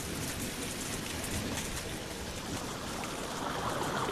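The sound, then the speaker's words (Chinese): Steady, dense rushing of water as floodwater fills a child's bedroom in a story, the water level rising higher and higher, with a constant hiss and patter that holds at an even loudness throughout, with no voices. “不好啦，卢卡斯的房间发水了，而且呀，房间里的水在不停的涨。”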